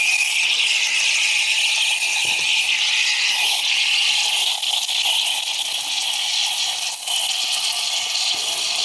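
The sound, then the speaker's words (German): An espresso machine's steam wand hisses steadily and loudly for the whole stretch, a wet, airy rush with a few faint sputters and no voices; too little steam and too much moisture are coming out. “Du hörst es schon am Geräusch. Ja. ja. Dass da zu wenig da ist und zu viel Feuchtigkeit.”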